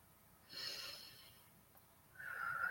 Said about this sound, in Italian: Iniziamo dunque col respirare, facciamo tre bei respiri profondi con il naso